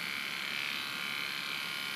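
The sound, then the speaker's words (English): Electric hair clippers cutting hair run in a steady, unbroken motorized buzz, a bright whirring hum that stays even and fairly loud for the whole two seconds, with no voices over it. “It's cutting. Cutting.”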